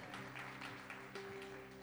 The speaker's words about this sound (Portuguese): Queria chamar a minha digníssima esposa. Receba com uma salva de palmas, vai ministrar hoje algo especial e poderoso.